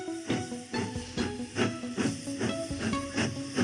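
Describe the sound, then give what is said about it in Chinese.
A toy train rattles along model railway tracks in a steady clickety-clack rhythm, about two clacks per second, with a hissing chuffing sound and tonal music running underneath throughout. “当模型铁轨好辛苦。”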